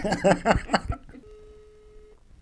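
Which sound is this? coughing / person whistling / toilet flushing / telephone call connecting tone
telephone call connecting tone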